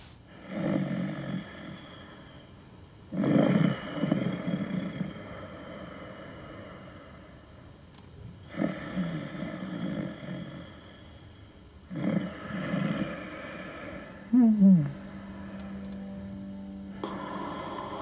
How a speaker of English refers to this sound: I think this sleeping sound is quite interesting.